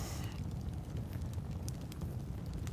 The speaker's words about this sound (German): Allmählich brennt das Feuer ein bisschen runter.